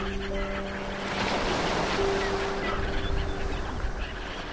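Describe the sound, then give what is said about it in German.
Steady wash of ocean surf fills the scene, a continuous broad rushing roar, while birds call over it with long, honking, goose-like tones that drift in and out. “Es ist ein stetiges Hin und her, begleitet vom beruhigenden Rauschen des Meeres und dem Rufen der Vögel.”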